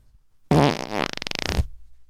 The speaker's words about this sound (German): Warte, da hau ich direkt einen Furz raus.